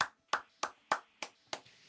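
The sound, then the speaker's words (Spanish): Six crisp hand claps in a steady, even rhythm, each a sharp smack with a quick decay, and no voices in between. “Eso se aplaude, eso, eso hay que seguirlo.”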